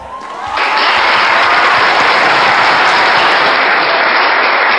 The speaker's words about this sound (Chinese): 这么热烈的掌声，不是给李金斗鼓的， 那我明白了 啊， 一定是给咱们常来先生鼓的掌， 也不是给他鼓的掌， 那是给谁鼓的？